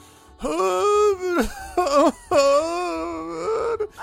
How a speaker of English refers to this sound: it sounds like a mixture of either something being horrifically killed or something alternately singing and then sobbing.